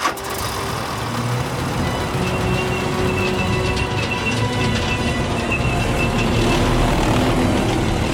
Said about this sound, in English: The sound of tank engines fill the night sky, followed by the squeal of tracks. The way is clear for the Hammurabi division, named for a Babylonian king, to begin its advance.